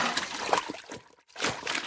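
Running water splashes and trickles at the engine washdown as Duchess is washed, a steady hissing flow that briefly drops away near the middle before gushing back at full strength. No one speaks.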